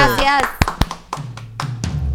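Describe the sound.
A brief voice opens, then a handful of sharp, irregular claps ring out, a short, sparse burst of applause of about six loud hand claps with a low hum underneath.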